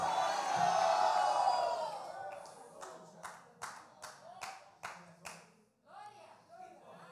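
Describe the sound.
A church audience erupts in a loud, sustained shout of "gloria a Dios" (glory to God) in Spanish, then breaks into rhythmic group clapping, about eight steady claps, with scattered voices continuing underneath.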